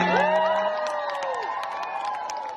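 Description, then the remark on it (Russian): A concert audience applauds and cheers, a dense wash of clapping with high shouts and whoops rising over it, steady and loud for the whole stretch. “Продолжаем наш концерт. Кто-то понял мой юпитерианский диалект. Поаплодируйте!”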